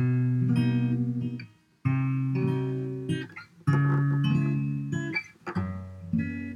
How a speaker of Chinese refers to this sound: 所以大家刚刚就有听到一个这个样子，有没有？那这个东西就是啊，减七和弦。